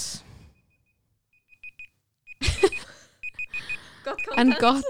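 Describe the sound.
A timer alarm beeps in short, repeated high-pitched bursts, fairly soft, sounding alone at first and then continuing under laughter and people talking.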